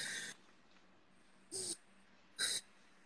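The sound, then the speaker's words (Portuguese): Three short, breathy exhalations of diaphragmatic breathing, done between exercises, spaced about a second apart with quiet pauses between them, as in a slow, controlled breathing exercise. No one speaks. “Faço a minha respiração diafragmática.”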